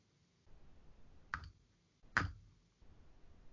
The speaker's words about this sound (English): you hear that mouse click? That's you sending me email. That's me sending the email.